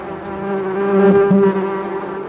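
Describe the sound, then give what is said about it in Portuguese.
A steady, droning bee buzz hums continuously for a couple of seconds, fairly loud, swelling slightly in the middle with no voices present. “Bartolomeu ouviu um zum zum zum com sua grande orelha.”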